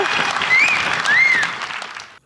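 A crowd claps steadily for about two seconds, a dense crackle of hands punctuated by two rising-and-falling whistles, before the applause cuts off abruptly.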